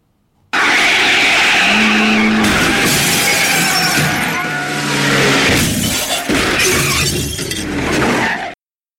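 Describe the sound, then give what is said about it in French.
A man drives a bumper car at full speed, crashing into cars and pedestrians; it zooms along loudly with squealing skids and repeated crashing, shattering impacts, a dense, chaotic burst of motor noise lasting several seconds with no voices. “Nous voyons un homme monter dans une autotamponneuse et partir à toute vitesse.”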